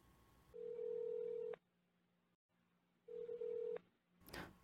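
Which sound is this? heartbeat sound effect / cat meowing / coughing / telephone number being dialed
telephone number being dialed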